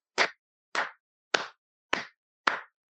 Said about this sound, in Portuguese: até eu que sou crítico do Thiago Silva, tenho que aplaudir ele. Vou ver se sai um aplauso aqui no meu, no meu fone, né?